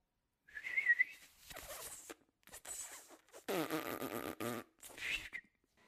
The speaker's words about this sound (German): Können Sie überhaupt pfeifen? Natürlich. Ich höre. Was für ein gemeiner Ton! Hören Sie mal her!